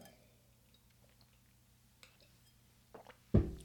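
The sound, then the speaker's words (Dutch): Someone takes a sip of water: faint wet mouth clicks and small slurps, then a louder gulp near the end, with no talking. “Even slokje water, want hier ga ik echt...”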